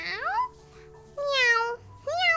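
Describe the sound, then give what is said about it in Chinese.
A person imitates a kitten's meow three times to act out the English idiom "as weak as a kitten": high-pitched, rising-then-falling mews with short pauses between, the second call longest and loudest. No other talking is heard. “当我生病的时候，我觉得我像小猫咪一样弱。喵喵”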